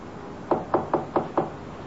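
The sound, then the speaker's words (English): A tenant knocks five quick, firm knocks on apartment door 3A in an even rhythm, clear with no one speaking. “Here's one of them now knocking on Mr. W. W. Norton's door, 3A.”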